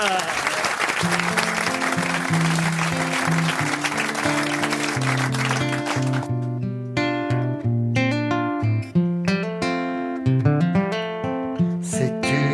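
Loud, dense audience applause fills the first half, with a few sustained musical notes beneath it; the clapping then stops abruptly and lively instrumental music carries on alone.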